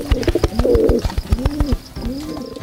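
Doves coo in a series of low, rolling, throaty calls that repeat in a steady rhythm, with sharp little taps and clicks scattered throughout. No one speaks.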